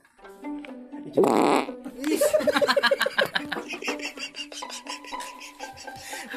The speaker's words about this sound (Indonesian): Mau kentut? Iya. Mau kentut ngomong pak Nih kentut yang mau diancang-ancang.